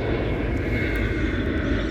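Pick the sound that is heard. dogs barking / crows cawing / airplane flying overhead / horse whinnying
airplane flying overhead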